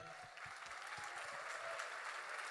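A crowd breaks into a round of applause, dense steady clapping filling the whole stretch at an even, moderate loudness with no voices standing out.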